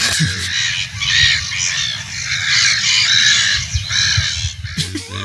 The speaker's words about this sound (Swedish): De parar sig hej vilt nu. Men de, ja, de låter ju likadant vare sig de parar sig eller inte. Men det är ju skillnad för eh, många människor låter ju som fiskmåsar när de parar sig. Skrattmåsarna är i full gång när du står utomhus och kissar.